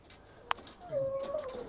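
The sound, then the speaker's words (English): A dog behind the fence of a house gives one sharp, short bark at another dog being walked past, then lets out a thin, drawn-out whine that wavers in pitch. Both sounds are fairly faint, with no talking. “another dog behind the fence who's barking because Bud is uh, Bud's another dog”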